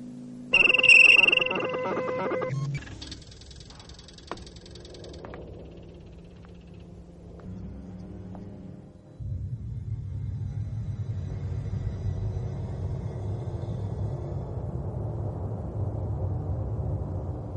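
Spaceship interior ambience aboard the Nostromo from a film: bright electronic beeps and chirping tones open over a low drone, then a steady, louder mechanical rumble and hum take over and continue to the end.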